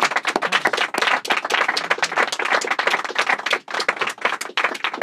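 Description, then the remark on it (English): An audience claps in a steady round of applause, dense overlapping hand claps forming a continuous crackling wash that holds at a fairly loud level for several seconds, with no voices over it. “But, uh, you, uh, yeah, round of applause.”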